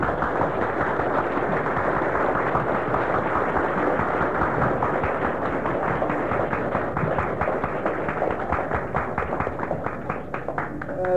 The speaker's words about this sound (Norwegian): Applaus